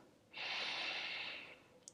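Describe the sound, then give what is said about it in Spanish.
A single long, deep inhalation through the nose during a guided breathing exercise, a steady breathy rush lasting over a second, quiet with nothing else around it. “Y vamos a inhalar, a iniciar con una respiración. Inhalamos”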